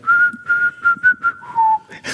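A caged parrot whistles a short tune: a run of clear, sustained notes on one pitch, then a slightly lower held note, with no talking.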